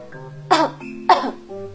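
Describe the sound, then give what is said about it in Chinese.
A voice imitates a monkey coughing: two sharp, raspy cough bursts about half a second apart, loud and hoarse, over a low steady hum with no speech. “猴子又咳嗽起来，呱呱。”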